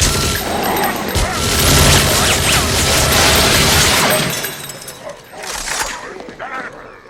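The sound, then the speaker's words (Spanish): A rapid, loud burst of gunfire from a weapon with a titanium reloader and a repeater that sends all the other shots at the same target rattles continuously for several seconds, then thins into scattered, quieter shots with crashing debris as the noise fades. “¿Un disparo? Y el repetidor envía todos los demás disparos al mismo objetivo.”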